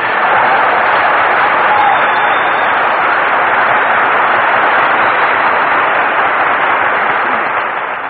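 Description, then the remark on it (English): A sustained burst of radio broadcast audience applause greeting Phil Harris's entrance, dense and loud, many hands clapping in a steady crackling wash for about eight seconds before easing slightly at the end. No one speaks over it. “Say, say, Phil, why is it every time we broadcast from a new place, you always make your entrance by asking for applause?”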